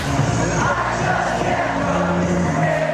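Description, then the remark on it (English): About 100,000 Michigan fans in a college football stadium sing their team song in unison, voices blending into a loud, continuous, echoing roar with sustained pitched notes throughout. “And that's the sound of 100,000 Michigan fans singing their team song.”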